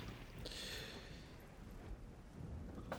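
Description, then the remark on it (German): A steady thunderstorm at night over a castle: low rolling thunder rumbles beneath a constant hiss of rain, with a brighter swell of downpour early on and a few deeper booms near the end. “denn der Himmel ist inzwischen zugezogen und ein Gewitter ist aufgezogen. Es beginnt zu regnen, als ihr gerade euch ähm, euren Weg bahnt durch die Gänge der Burg, hört ihr über euch den Donner und die Blitze zucken.”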